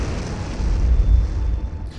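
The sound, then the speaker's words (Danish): A deafening explosion blast: a heavy, booming low rumble that rolls on loudly for about two seconds, swelling in the middle before easing off, with no voices. “Et øredøvende brag rev Alex ud af hans tanker”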